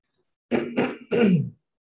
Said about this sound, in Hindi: हाँ जैसे कि आप देख सकते हैं मुझे हल्की सी खांसी है और गले में खराश है लेकिन मैं आशा करता हूँ कि इस सत्संग के दौरान ये ज़्यादा बड़ा डिस्टरबेंस नहीं रहेगा